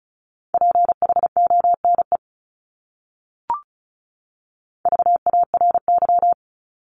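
Rapid Morse code beeps at 35 words per minute in a single steady mid-pitched tone, spelling a common English word, sent as two quick bursts of dots and dashes separated by a pause with a brief click between them.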